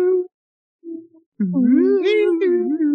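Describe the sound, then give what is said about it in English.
A voice imitates an eerie sci-fi theremin: two short hummed notes, then a longer wavering, swooping wail that slides up and down in pitch, fairly loud. “It's where you get that sci-fi.”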